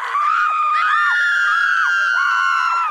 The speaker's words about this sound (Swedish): En katapult rullades in på torget och slungade iväg en lavin över kungens lag som skrek skrek av fasa när deras frisyrer blev förstörda.